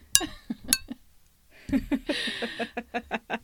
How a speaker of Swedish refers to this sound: Klirr, klirr. Skål!